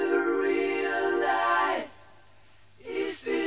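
A sustained sung vocal note holds for nearly two seconds, fades into a brief hush, then returns as two short sung phrases, with no clear band accompaniment beneath.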